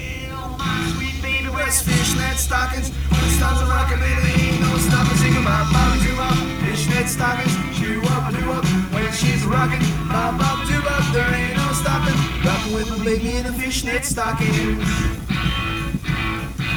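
A rockabilly song plays loud and steady, with driving bass and bright guitar over a busy, rhythmic band; no singing is heard in this stretch.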